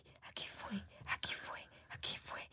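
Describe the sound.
Breathy whispering voices murmur in short overlapping bursts, a voice imitating the eerie ghostly chatter of people who entered a room, all repeating "aquí fue" in Spanish, hissy and unvoiced with brief pauses between phrases.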